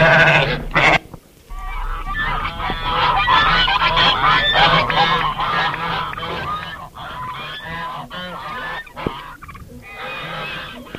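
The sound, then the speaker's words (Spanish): A busy farmyard chorus in a village: honking geese and clucking fowl with bleating sheep and goats, many overlapping calls filling the scene continuously and fairly loud, with no talking. “Vivía en un pueblo ahí con animales, había borregos, había cuches, o sea, puerquitos, patos, gallinas, gallos, todo.”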